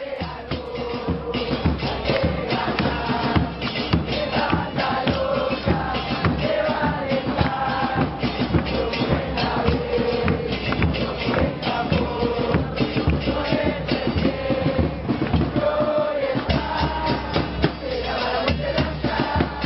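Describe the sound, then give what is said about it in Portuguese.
A large crowd of LDU football fans chants a song in unison in a stadium, loud and unbroken throughout, the massed voices carrying a steady melodic rhythm over a dense roar. “A gente vai ouvir primeiro a torcida da LDU e depois a música correspondente.”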